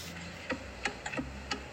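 A clock ticks softly, about five small sharp clicks in under two seconds against a quiet background hum, with no one speaking.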